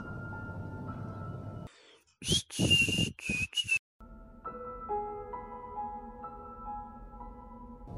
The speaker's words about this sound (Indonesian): Tapi tiba-tiba terdengar suara seorang bersiul.